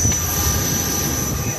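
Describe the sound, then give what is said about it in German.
A steady, loud airplane engine drone fills the background as passengers board the airplane, with a broad low rumble and a constant high whine running throughout, no other distinct sounds standing out. “So, steigen wir mal ein ins Flugzeug jetzt.”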